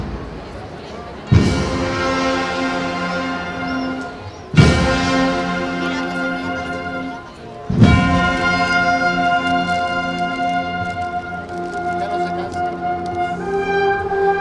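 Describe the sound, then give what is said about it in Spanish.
A processional brass band accompanying the first paso of the Hermandad de la Clemencia strikes up a march at the carrera oficial, with three loud accented hits opening phrases, followed by sustained, harmonically rich brass chords and steady drumming that continue throughout. “si ahora parece que apunta marcha la agrupación musical que va acompañando a este primer paso de la Hermandad de la Clemencia.”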